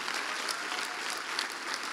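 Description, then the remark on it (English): A crowd of people claps steadily for the speakers and scripture readers, a dense, even patter of many hands sustained throughout at a moderate level, with no voices standing out. “I'd like you also to applaud all of our speakers and scripture readers.”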